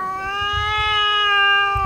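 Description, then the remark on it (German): A female cat lets out one long, drawn-out yowl that holds steady and swells slightly, a loud caterwaul with strong harmonic tone and no talking. “Die andere Katze, die man da hört, das war seine Freundin, die hat ja.”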